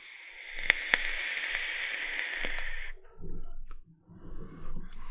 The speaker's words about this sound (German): Du hast an der Dampfe gezogen, währenddessen kommt hier gerade eine Bahn vorbeigerollt. Das muss man auch mal dazu sagen, ich wohne in der Nähe von Bahngleisen.